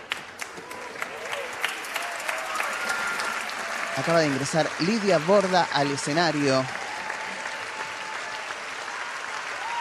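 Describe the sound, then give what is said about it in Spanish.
A theater audience gives a sustained ovation after a performance of the play La China Iron, Rapsodia Gauchesca Queer, based on Gabriela Cabezón Cámara's book. Steady dense clapping fills the whole stretch, while a man's voice announces something over the applause midway through. “con otra ovación.”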